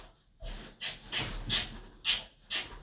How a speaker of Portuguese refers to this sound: O Gambá está dando tchau aí para vocês também. Não sei se vocês estão ouvindo, mas ele está aqui. Está aqui pertinho, olha lá. Olha o barulho, olha o barulho.